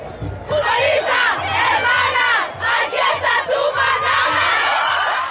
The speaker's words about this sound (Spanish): En las gradas del estadio hubo un conjunto de voces que llamaron nuestra atención. Venían de las gradas cercanas al Palomar y sonaban diferente a lo que estamos acostumbradas en un partido de fútbol.